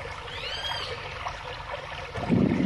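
Steady trickling water at the Calderón diversion dam (Elías González Chávez dam), part of the La Zurda system at Salto Calderón, fills the scene with a continuous outdoor wash during a community inspection, a brief high chirp rising early on, and the flow grows louder and splashier near the end.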